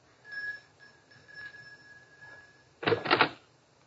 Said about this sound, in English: It's this door here. Just ring the bell.